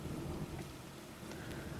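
Steady rain patters against a window in a continuous, even hiss, with a deep, rolling rumble of thunder underneath; no voices, just the storm at a soft, constant level.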